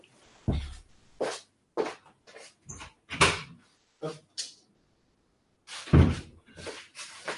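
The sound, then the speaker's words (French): A door being opened to let a cat out: a run of irregular knocks, clicks and bumps over several seconds, with one heavier thud toward the end and brief silent gaps between, and no talking. “Pourquoi il y a un chat qui descend hein Pourquoi il y a un chat Oh non, en plus c'est le pire chat. Merde. Attendez, je lui ouvre.”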